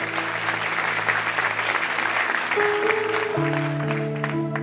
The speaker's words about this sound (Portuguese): Vamos aplaudir aí, vamos ficar em pé, vamos embora.